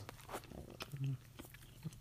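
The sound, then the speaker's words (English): Wet chewing of a big bite of a small pizza, eaten on mic in wintry Pullman, with irregular smacking and crunching bursts and a brief low hum through closed lips partway through. “Okay, I took a big bite. Hopefully you can't hear me chewing on mic.”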